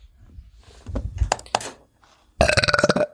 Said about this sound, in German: Oh. Irgendwie muss ich voll für rülpsen heute. Dein Rülpser war gerade aber ziemlich laut.